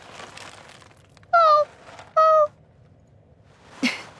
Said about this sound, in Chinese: 你怎么跟其他猫的叫声不一样啊？怎么回事？